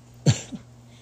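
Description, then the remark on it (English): A single abrupt sneeze bursts out, sharp and breathy, followed by a softer short exhale, then quiet. No one speaks. “Pardon me, sneeze.”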